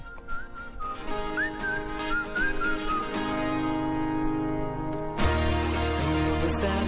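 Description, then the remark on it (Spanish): A song's opening plays, with a whistled melody gliding over sustained instrumental chords, then the arrangement fills out and grows louder around five seconds in. No one speaks. “pero es buena forma de conocer las canciones de primera mano.”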